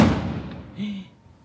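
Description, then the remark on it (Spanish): A single sharp gunshot cracks outside at moderate volume, its rumbling echo fading over a second, followed by a brief faint tonal whine. “¡Qué tu Balazo. Los pacos.”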